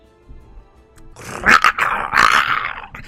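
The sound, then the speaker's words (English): A large beast growls and howls in the near distance in a dark, snowy pine forest on a cold morning, starting low and quiet before swelling into loud, drawn-out snarling roars that rise and fall over a few seconds. “And as these howls in the near distance get louder, the darker it gets,”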